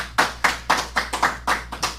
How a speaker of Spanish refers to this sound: Así que un aplauso por esa unidad, señores. Muy bien.